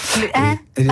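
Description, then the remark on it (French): A person sneezes: a loud, voiced burst with a breathy onset, then a brief pause and a second short vocal burst. “à vos souhaits, à vos souhaits”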